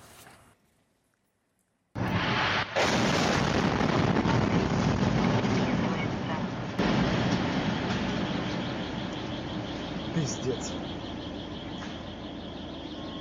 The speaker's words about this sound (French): L'explosion a été filmée par la caméra embarquée d'une voiture, on va le revoir.